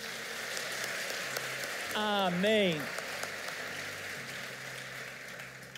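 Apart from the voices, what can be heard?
audience applauding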